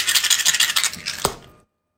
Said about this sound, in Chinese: 当时你看这三哥啊，拿了一个这个小小骰盅啊，晃悠了这一下，哎，晃悠这一下，你说这三哥干啥呀？三哥可不是给他摇骰子啊